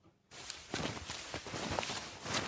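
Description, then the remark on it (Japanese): Footsteps crunching through soft snow higher up a slope on a kanjiki (traditional snowshoe) walk with a guide from the Aokiko Adventure Club in the Northern Alps foothills. A steady series of muffled crunches follows a brief quiet start, with no voices present. “さっきの音とちょっと比べてみましょう少し上に行くと雪が柔らかくなります”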